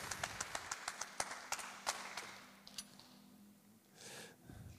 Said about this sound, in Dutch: Geef er een groot applaus.